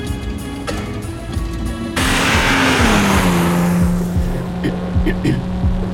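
A sports car speeds along the unfinished Nordtangente motorway, its engine surging into a loud, sustained roar after a couple of seconds, the droning tone sliding lower in pitch amid a rushing hiss of tires on road.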